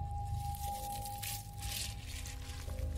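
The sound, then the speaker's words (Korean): Crunchy, gritty chewing like someone chewing raw rice grains from a jar, heard right beside the ear of a person asleep in bed in a dormitory room, in a few rough bursts over a steady low hum and faint background drone. “단지 안에 들어있는 쌀을 씹는 듯한 소리. 그 소린 바로 제 귓가에서 들려왔습니다.”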